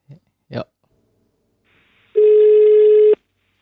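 An outgoing phone call's ringback tone, placed late at night, sounds once: a single steady, loud electronic beep lasting about a second, preceded by a couple of brief throaty vocal noises.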